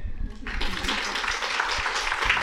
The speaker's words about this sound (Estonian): meil rohkem enam ühtegi küsimust ei ole, siis mina soovin äh, paluda neile ühe suure aplausi.